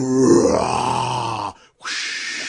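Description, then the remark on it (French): A person imitates a polar bear with a deep, loud, rumbling growl that lasts over a second, then pauses briefly before a raspy, hissing breath. “c'est assez maudit tu, fais ton imitation d'un ours polaire.”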